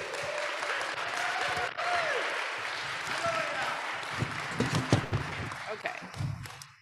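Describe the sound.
An audience breaks into a sustained round of applause, dense steady clapping lasting several seconds, with scattered voices and cheers mixed in before it thins out at the end.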